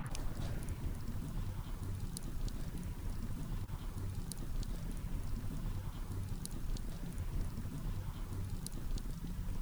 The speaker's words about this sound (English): Well, can we get the wood to pop in and put that sound? the sounds. Okay. Uh-huh. Let's hope it doesn't burn my mic.